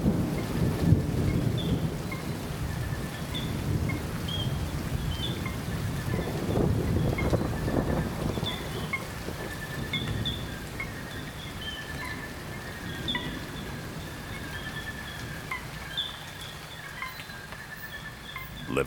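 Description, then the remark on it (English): An afternoon thunderstorm rumbles through the Atlantic Forest rainforest at the Caratinga Biological Station in Brazil, low thunder rolling continuously under steady rain, while birds or insects chirp in repeated high calls throughout. No voices are heard. “Douglas Quinn captured an afternoon storm as it rolled through the rainforest”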